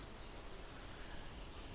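Faint birds chirp a couple of times over a steady outdoor hiss of ambient noise, with no voices present.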